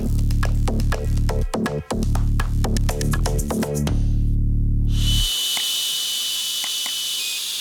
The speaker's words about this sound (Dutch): Dit klinkt een beetje als een stofzuiger met ademnood. Maar het is eigenlijk iemand die een alcoholslot gebruikt in zijn auto. Voilà, nu wordt het groen en kan ik de wagen starten.